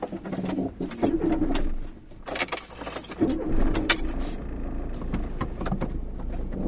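A car engine starts up and keeps running, with a jangle of keys and scattered rattling clicks over the rumble; no one speaks.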